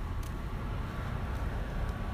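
Cars drive past outside, a steady low rumble of road traffic heard faintly with no voices, the hum swelling only slightly as vehicles go by.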